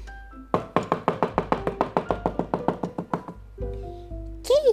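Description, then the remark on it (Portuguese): A rapid, steady run of about sixteen sharp knocks on a door, fairly loud, then a low sustained hum with a brief rising whoosh at the end. “Em seguida chegou o lobo, muito bravo, esbaforido e cansado, e bateu na porta.”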